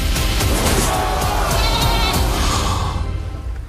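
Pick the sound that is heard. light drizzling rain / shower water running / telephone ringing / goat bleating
goat bleating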